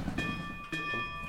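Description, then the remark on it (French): A phone ringtone that sounds like a railway station bell, with steady bright chiming tones that restart midway, heard at moderate loudness over faint background noise. “Alors votre téléphone fait un bruit de, cloche de gare, c'est ça Exactement.”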